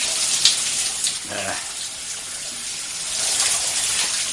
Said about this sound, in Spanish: Bob entra en la ducha.